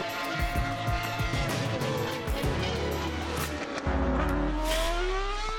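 Formula 1 race cars scream past, high-pitched engines rising and falling in pitch as they pass. The sound is loud and continuous, with some tire squeal and no voices.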